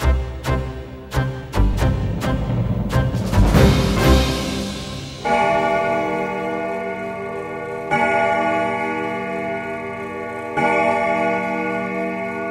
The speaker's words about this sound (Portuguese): Big Ben em Londres, Porta do Sol em Madrid, Times Square em Nova York. São apenas alguns dos relógios emblemáticos que palpitam os últimos segundos antes do ponteiro dos minutos se ao das horas.